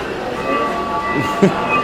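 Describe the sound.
A small model train on a model railroad display runs steadily along its track, giving off a continuous mechanical hum and light rolling clatter, with faint voices murmuring in the background.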